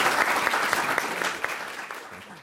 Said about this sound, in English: Uh, first, we owe you a round of applause.